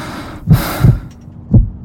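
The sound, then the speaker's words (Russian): A heartbeat: two pairs of deep, muffled lub-dub thumps in a slow, steady rhythm, with a soft hiss washing over the first pair and a low background rumble. “это стук твоего сердца, наполняющий каждую клетку твоего тела.”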